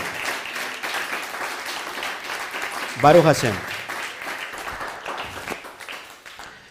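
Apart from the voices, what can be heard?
applause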